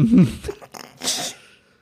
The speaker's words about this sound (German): Oh. Ist es ein Bart, der Mikro kriegt? Nein, das ist der Podcast-Hund, der schnarcht. Jungs, Disziplin. Das kann doch keiner mit anhören.